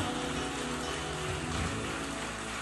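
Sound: audience applauding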